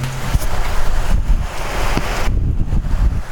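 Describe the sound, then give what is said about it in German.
Strong wind gusts buffet the microphone in a loud, continuous roar with low rumbling thumps, steady throughout with no one speaking. “Oh, der Wind.”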